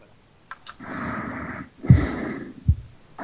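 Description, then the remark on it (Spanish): Loud, heavy snoring-like breaths: two long rasping inhales with a rough, noisy texture, separated by brief pauses and ending in a short snort. No speech. “Alguien está roncando.”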